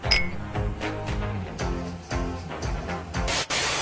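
A single bright clink of champagne glasses in a toast rings out at the very start, briefly, before a loud, rhythmic stretch of music with regular beats and hissy bursts takes over.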